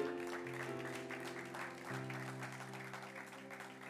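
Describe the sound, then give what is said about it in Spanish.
A church audience claps steadily throughout during a sermon, a dense crackle of many hands, layered over sustained organ-like keyboard chords that shift pitch partway through. “yo no vine para recibir aplausos, yo vine para traerle la palabra de Dios.”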